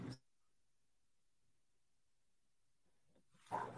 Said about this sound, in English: Dogs are over here being crazy.